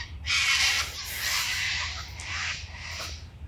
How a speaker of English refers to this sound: And these birds are fucking angry pigeons or something, don't they? Jesus.